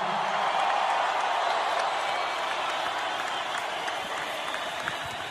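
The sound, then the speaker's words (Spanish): Sustained crowd applause in recognition of Messi after his speech on joining Inter Miami fills the whole stretch, a dense steady wash of many hands clapping at an even, loud level, with faint cheers mixed in and no distinct voices. “Pues ahí está Messi con los aplausos, el reconocimiento.”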